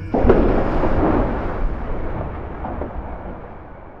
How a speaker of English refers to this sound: Joe lit the fuse and clambered away. He ran as fast as he could. Not even the sound of the explosion could stop him.